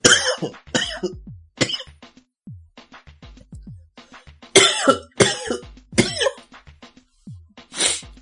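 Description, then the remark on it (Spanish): A run of harsh coughs comes in bursts, several in a row, then a pause and another cluster of loud hacking coughs mixed with throat clearing, no talking. “perdón, eh, una tosecita, ¿no?”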